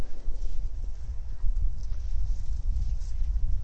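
Many Bible pages being turned at once as people turn to John chapter 1, verse 51, a soft, continuous shuffle of rustles and papery flutters with dull low thumps, steady and irregular, with no one speaking.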